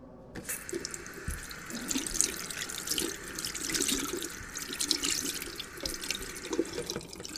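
Water gushes steadily from a shower tap in a hospital gynaecology ward, with no hot water, a continuous splashing hiss that starts abruptly after a brief silence and runs unbroken to the end, with no voices.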